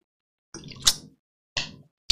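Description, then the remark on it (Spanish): Sipping and swallowing water: a wet slurp with a sharp click, then two shorter gulps, all fairly quiet, with no one speaking. “Sorry que me tuve que dar un buchecito de agua ahí.”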